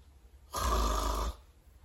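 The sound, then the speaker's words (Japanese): A single sustained, raspy French uvular R fricative from the back of the throat, gargle-like, made as a pronunciation demonstration, lasting under a second with no other sounds around it. “この R の発音はうがいをするような仕草なのですがやりたいことは口外を震わせるような摩擦音を出すところがポイント”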